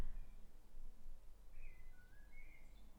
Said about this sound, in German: Ich hoffe, ihr hört die Vögel, weil die. Ich habe hier das Fenster offen und die Vögel zwitschern hier die ganze Zeit. Ich weiß nicht, ob man es hört.